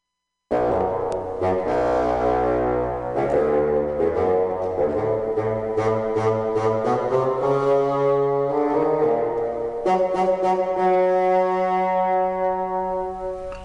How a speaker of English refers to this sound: The bird by the flute The Duck by the Oboe, The Cat by the Clarionet, grandfather by the bassoon.